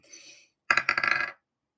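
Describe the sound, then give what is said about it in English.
A soft rattle is followed by a quick clatter of dice tumbling and tapping across a table during a tabletop game roll, several rapid clicks in a burst lasting under a second, fairly loud. “My own dice have also failed me. They've chosen violence.”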